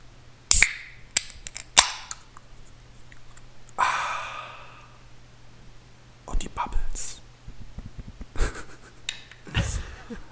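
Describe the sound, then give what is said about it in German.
A frozen can of mixed-fruit drink being opened: a few sharp metallic clicks, then a short fizzing hiss, followed by scattered crackles and pops over a faint steady hum. “Und einfach mal in eine Dose und fertig. Tiefgekühlt und jetzt mache ich die auf und ihr könnt mit mir das erleben, den Klang.”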